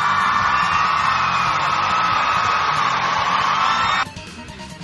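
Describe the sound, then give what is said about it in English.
A canned applause effect: steady, dense clapping and crowd cheering with whoops, holding loud for about four seconds before cutting off abruptly into a quieter tail. “but I, will give I'll give him an applause anyway.”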